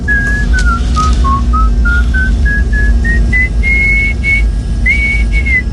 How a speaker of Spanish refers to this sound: Estos silbidos del … son el himno nacional noruego.